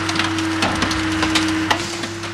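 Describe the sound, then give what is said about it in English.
A car crusher at Fox Auto Parts in Belleville, Michigan, on a crisp, sunny day, flattening a junked car's steel skeleton like a pancake: a steady low mechanical drone runs throughout while loud, sharp cracks and crunches of bending metal break through at irregular moments. “Today, he's crushing a steel car skeleton and flattening it like a pancake.”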